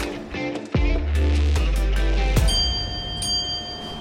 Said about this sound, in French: Donc la petite sonnerie qu'on entend deux fois, c'est ce qu'on appelle le bicou. C'est ce qui, euh, ce qui m'indique que le, toutes les portes sont bien fermées et elles sont bien maintenues fermées. C'est ce qui m'autorise à, partir en fait.